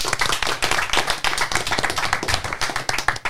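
A crowd applauds steadily, many hands clapping in a dense, continuous patter with no voices over it, applauding the winner of a contest.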